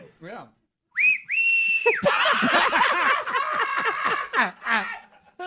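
A person gives a loud, shrill whistle, a short rising note and then a steady held tone of about a second, followed by a burst of cackling laughter.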